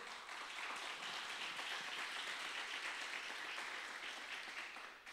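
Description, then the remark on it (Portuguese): Sustained applause from a crowd, a dense wash of many hands clapping at steady volume for about five seconds before tapering slightly at the end, given as applause to the Lord during a religious sermon. “Você pode dar um aplauso ao Senhor?”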